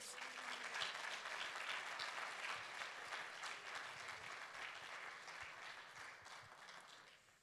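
A church audience applauds a missionary family, a dense wash of many hands clapping at once, holding strong for several seconds before gradually thinning and fading out at the end.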